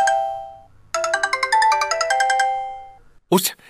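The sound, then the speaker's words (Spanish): A bright electronic phone ringtone plays a quick, bouncy melody of stacked tones for a few seconds, loud, ending with a short burst of noise like the phone being picked up. “a, ver, atenderé.”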